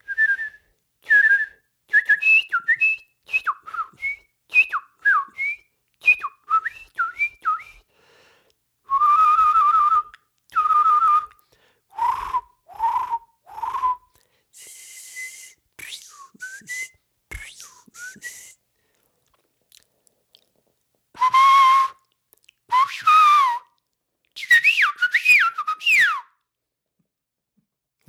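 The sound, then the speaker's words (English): A person whistles a long run of songbird imitations: rapid high chirps, quick up-and-down sweeps and trilling phrases, loud and bright, separated by short pauses, with no talking. “And then there's some sing, uh, songbirds like”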